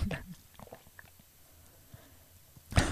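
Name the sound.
chewing and swallowing food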